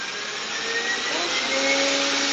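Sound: robot vacuum cleaner running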